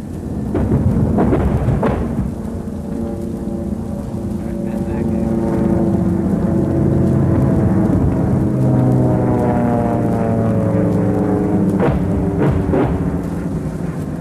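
Heavy German anti-aircraft guns boom in scattered bursts during an air raid, strongest near the start and end, over a continuous low rumbling drone of aircraft engines in a dense, noisy old recording.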